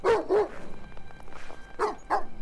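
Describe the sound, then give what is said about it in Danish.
A Doberman barks in two quick pairs, two sharp barks, a brief pause, then two more, loud and clear with no talking. It is reacting to something in a Chinese pavilion and running up toward it from the path below, in Søndermarken park at about 3:30. “Hendes hund, en dobbermand, reagerede på noget i kineserpavillonen og løb op mod pavillonen.”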